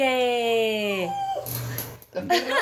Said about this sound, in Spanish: Los perros. Los perros. Están los perros.